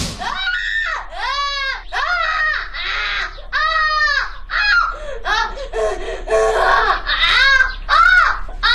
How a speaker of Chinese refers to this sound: 僻静的山村，紧闭的大门，一阵阵孩子的哭喊声正从这户农家院里传出来。这声音过于凄惨，让人感到有些不安。